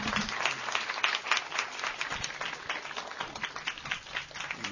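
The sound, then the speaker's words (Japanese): An audience applauds steadily, a dense wash of many hands clapping at once with a bright, crackling texture that holds fairly even for several seconds. “大きな拍手でどうもありがとうございました。”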